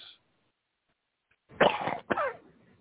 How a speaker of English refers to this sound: Sorry about my cough.